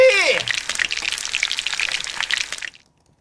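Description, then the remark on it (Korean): Chicken frying in hot oil, fried for a long time rather than briefly: a steady, dense crackling sizzle that carries on for a few seconds, then cuts off abruptly into near silence. “좀 오래 튀기려고 짧게 튀기지 않고 오래 튀기려고”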